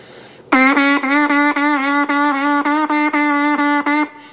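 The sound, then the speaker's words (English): A wind instrument player pushes the tongue at the mouthpiece, playing a string of about eight tongued notes on the same pitch, each cleanly separated by a brief articulation, steady and fairly loud with no talking. “and then if you push your tongue at the mouthpiece, it should sound like this.”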